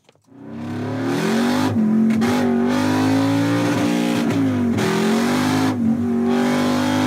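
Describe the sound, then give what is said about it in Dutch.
A powerful 5-liter Cosworth V8 engine of nearly 500 hp in an English sports car revs loudly and continuously, its deep growl rising and dipping in pitch with a few sharp blips of the throttle, with no talking. “Uh, 5 liter V8 van Cosworth met bijna 500 pk.”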